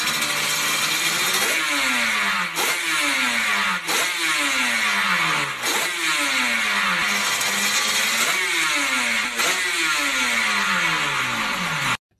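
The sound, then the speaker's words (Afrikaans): A two-stroke motorcycle engine revs up and drops back over and over, about six sharp throttle blips in a steady rhythm, loud with no voices. “Maar nou twee wiele en ons praat oor klank en daar's een liefde wat ek en jy albei het en verder weet ek nie wat het jou hartsnaar geroer nie, maar dit is 'n klank van 'n tweeslag motorfiets.”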